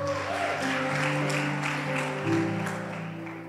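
Sustained audience applause, a dense, steady wash of many hands clapping, running over held musical chords for several seconds before easing slightly at the end.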